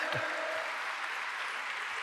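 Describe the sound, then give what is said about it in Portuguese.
An audience bursts into steady applause for Jesus, a dense wash of many hands clapping at an even level throughout, with a faint voice briefly audible at the start. “Eu queria que você aplaudisse Jesus, porque Jesus é demais.”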